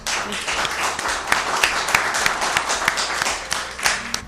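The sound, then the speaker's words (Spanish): A small group of women volunteers in a hall in Pozo Blanco applauds steadily for a few seconds, dense overlapping claps with a few sharper individual claps standing out, fairly loud and unbroken throughout. “Un pequeño aplauso para que se os escuche la voluntarias de Pozo Blanco.”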